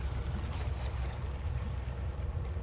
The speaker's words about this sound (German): Ach, guck mal, das Plätschern, das ist so schön. Das ist richtig schön.